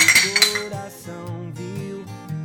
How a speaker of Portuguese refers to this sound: Temos um, um brinde a nós.